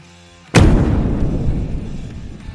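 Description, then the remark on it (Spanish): A single loud explosion bursts in suddenly after a brief quiet moment, then a deep rumbling roar lingers and slowly fades over the next two seconds. “El estallido ocurrió y me salvé por los pelos.”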